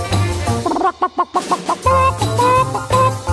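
A 1963 twist song plays loudly with a steady bass line, broken midway by a run of short, rhythmic clucking-like vocal bursts that imitate a hen before the full band returns.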